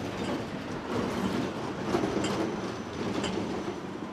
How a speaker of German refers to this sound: Es ist gerade eine Straßenbahn vorbeigefahren, die ist natürlich auch eine Herausforderung vor allem beim Einsteigen, wenn man nicht weiß, wo genau der Einstieg ist.